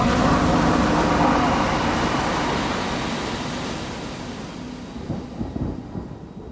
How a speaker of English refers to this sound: My brain reeled as I saw the mighty walls rushing asunder, there came a long, tumultuous, shouting sound like the voice of a thousand waters.